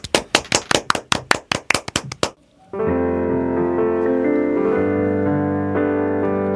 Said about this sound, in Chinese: 嗯哼，好的，嗯，那我们给他鼓掌好吗？